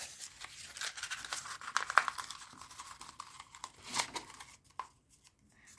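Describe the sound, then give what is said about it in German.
Quiet crackling and ripping of a small piece of sticky tape being pulled and torn to fasten a rolled-up picture, a dense run of scratchy bursts for about four seconds, then a few sparse clicks as it settles. “und mache das mit einem kleinen Stück Tesafilm fest.”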